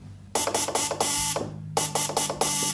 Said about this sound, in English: This is what radio sounded like when Mills first started the dots and dashes of Morse code. That's the letter V